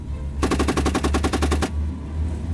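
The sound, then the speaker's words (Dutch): A 7.62 mm machine gun fires one rapid, evenly spaced burst of about a dozen sharp, loud shots lasting just over a second, over a steady low engine-like rumble that continues after the firing stops. “Ook hebben we een mitrailleur met het 7,62 eh, kaliber.”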